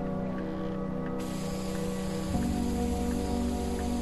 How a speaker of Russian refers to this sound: Он продолжает распылять краску цвета зеленой мяты, направляя распылитель от потолка к полу.